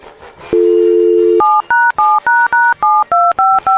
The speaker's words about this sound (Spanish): Eh, le voy a marcar de mi celular y nomás le voy a decir que me lo estoy troleando, ¿ok? Va, permíteme.